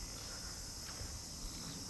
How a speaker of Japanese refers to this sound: 今日は夏のねちょうど過ごしやすい季節のいい塩梅の境内からお話ししておりますもうセミもねそうだそうだ言っておりますよねセミも今一瞬にこうあの一瞬一瞬をこう懸命にシンガーソングしてますからねラブソング歌ってますよ